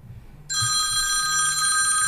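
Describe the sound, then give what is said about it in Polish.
A telephone starts ringing abruptly after a brief quiet moment, a loud, continuous electronic trill with bright high tones that holds steady to the end, a faint low hum beneath it. “Czego dzwoni?”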